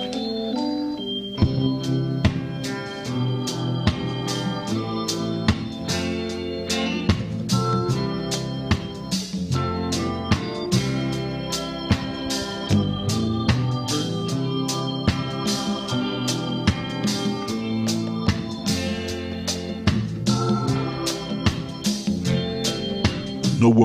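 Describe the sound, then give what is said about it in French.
A 1974 reggae song plays steadily at moderate volume, with a relaxed rhythmic groove, regular off-beat chops and a warm bass line running throughout, no talking over it. “Comment je l'ai qui ben, la plus belle chanson du monde, je l'ai.”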